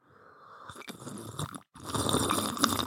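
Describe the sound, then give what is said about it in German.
Someone slurps hot mint and citrus tea noisily in two drawn-out, airy sucks with a brief pause between them, a loud wet hissing sound with no talking. “Aber erstmal haben wir natürlich Episodentee, Minze, Zitrus. Ja. Demonstratives Hinschlürfen muss sein.”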